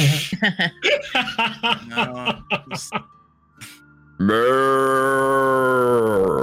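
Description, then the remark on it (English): A person does a loud, drawn-out cow moo impression, holding one low voiced tone for about two seconds after a burst of quick talking and chuckling. “What what sound does the cow say?”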